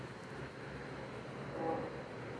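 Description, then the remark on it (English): A train rumbles steadily in the background, a faint low roar with a brief high-pitched whine rising near the end. No one speaks. “I'm sorry if you can hear that train in the background but it's just the way it's going to be.”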